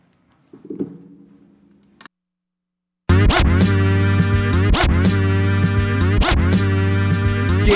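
After a faint rumble and a brief silence, a loud hip hop beat kicks in, punctuated by sharp record scratches that recur roughly every second over a dense, looping backing.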